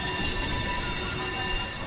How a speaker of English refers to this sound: The Animal Care Center is in an old brick building along the Quincy Wharf. Freight trains whine between abandoned warehouses with smashed windows, and the smell of the sea is thick.